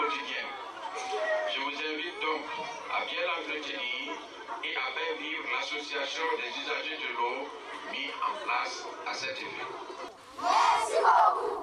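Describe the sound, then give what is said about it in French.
A lively outdoor crowd shouts and chants together at the inauguration of a water tower in Burkina Faso by the association Zinado 2000, many voices overlapping in a dense, energetic roar that swells louder near the end, like spirited cheering. “Vous venez d'écouter un extrait de l'inauguration d'un château d'eau au Burkina par Zinado 2000.”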